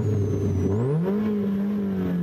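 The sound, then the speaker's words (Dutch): A car engine revs up, its low droning pitch climbing steadily and then holding at a higher whine, loud and continuous with no voices over it. The car has a fabric roof, a heavy clutch and no power steering. “Het ding maakt enorm veel herrie.”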